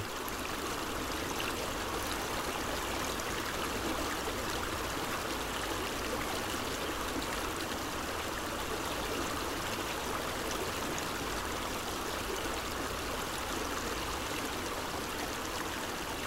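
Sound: river water flowing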